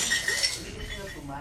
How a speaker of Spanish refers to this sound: Aquí ya se cayó el primer vaso.